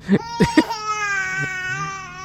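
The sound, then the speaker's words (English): A thirty-year-old man wails like a baby at an exhibit where a robot Trump speaks, with a few sharp sobbing gasps at the start, then one long, high, sustained bawl that slowly trails off. “is, that, is that a baby? No, no, no. That's a thirty-year-old man over there.”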